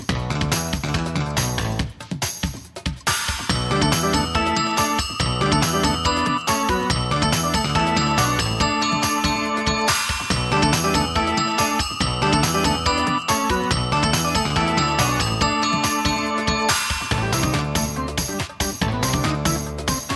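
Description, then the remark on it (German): A bright, upbeat intro jingle plays loud and continuous for about twenty seconds, with chiming tinkly melody over a steady bouncing beat and a brief break near the start; no one speaks. “dann würden mhm. wir sagen, äh, viel Spaß und äh, bis gleich nach dem Intro.”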